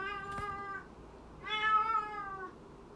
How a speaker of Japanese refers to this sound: 猫が泣いてる。